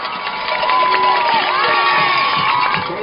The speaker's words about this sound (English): Cooper Clapp comes through the crowd, and the crowd chants, Coop, Coop.